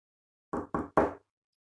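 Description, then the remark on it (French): Three firm knocks on a door, evenly spaced, with nothing else audible around them. “Quand le grand cerf frappe à la porte du petit lapin”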